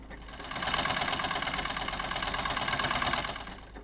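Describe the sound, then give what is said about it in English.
A marble machine runs with a steady mechanical whir and a dense, rapid clatter of small ticks, rising in, holding for about three seconds, then fading out. No one speaks. “Well, listeners, you heard the marble machine. It definitely sounds interested.”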